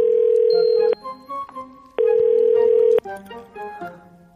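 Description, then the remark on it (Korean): A phone ringback tone on a call to a friend, made at home on a rainy day, sounds twice, each steady electronic burst lasting about a second, separated by a pause while soft background music plays; the call keeps ringing without anyone answering. “너 무슨 전화 안 받아?”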